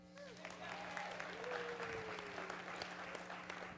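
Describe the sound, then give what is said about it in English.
An audience claps steadily for a few seconds for a person who has just recited Philippians 1, verse 3, a dense patter of many hands at moderate loudness, with a faint hum underneath. “Let's give her a hand.”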